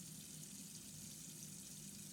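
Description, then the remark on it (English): A steady, continuous stream of water runs from a faucet, a constant hissing rush with a low rumble underneath, unchanging throughout. “but stops herself, staring instead at the steady flow of water.”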